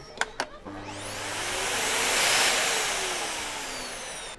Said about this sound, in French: Le deuxième dit Un aspirateur, madame.